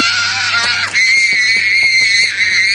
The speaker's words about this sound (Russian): Это была такая реклама дюрексов, когда ребенок там типа начинает себя очень плохо вести в супермаркете, потом начинает просто смысле, биться в истерике.